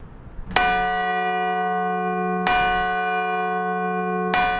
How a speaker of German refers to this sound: Wenn die Glocken von St. Martin in Obergünzburg läuten, dann vibriert der ganze Boden im Kirchturm.